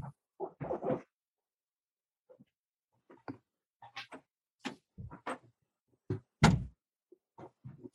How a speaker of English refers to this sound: Hey, let me let me shut the door really quick.